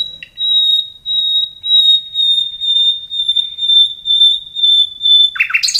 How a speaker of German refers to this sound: Das geht ja immer so direkt ans Herz, finde ich, dieses ähm, Sehnende. Das sind die äh, Pfeifstrophen und das ist auch das, was für viele Menschen, glaube ich, den Nachtigallgesang zu diesem sehnsuchtsvoll, frühlingsankündigend, äh, Liebesnächte